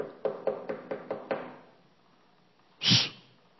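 Six quick, evenly spaced knocks rap on a door, followed after a short pause by a brief, louder breathy burst of noise.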